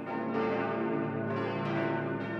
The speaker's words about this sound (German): Angeführt wird das Geläut von der 3200 Kilogramm schweren und 1950 in Landshut gegossenen Jubiläums- und Gefallenenglocke, die mit ihrem Schlagton A0 zugleich die tontiefste aller Amberger Glocken darstellt.